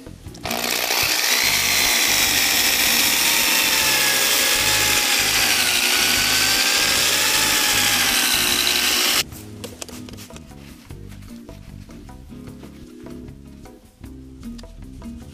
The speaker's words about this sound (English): This is a little too much compound, but we're gonna put this on here and spread it around. And then turn on the drill.